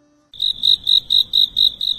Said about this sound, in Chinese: 除了蝉鸣，一点人声都没有。